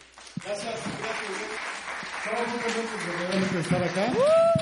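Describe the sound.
An audience applauds steadily for several seconds as the teachers continue with the program, a dense wash of clapping mixed with crowd voices, and a rising shout or cheer near the end.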